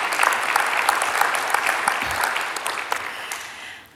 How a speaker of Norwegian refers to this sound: Må vel klappe for det Gud gjør.